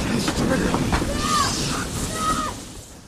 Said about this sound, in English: and the train starts moving, and HW is in the train and looks around,